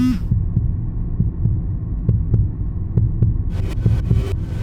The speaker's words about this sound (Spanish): respiración se acelera y puedes escuchar tu corazón latir a mil por hora.